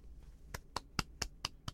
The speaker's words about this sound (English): I think that's that's a clap for her.